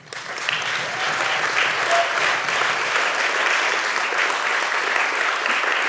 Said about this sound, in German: Applaus